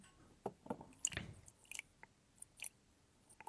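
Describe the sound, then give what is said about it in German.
A small amount of acetone is poured from a bottle into a container, making quiet wet splashes and drips in short irregular bursts, with no one speaking. “Ähm, so, das ist da jetzt drin und jetzt fülle ich von dem Acetonschluck rein.”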